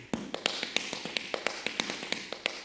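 Rapid, crisp tap-shoe strikes of a tap dance on a hard floor, about a dozen sharp clicks in an irregular syncopated rhythm, moderately loud with no voices.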